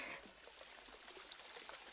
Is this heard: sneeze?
no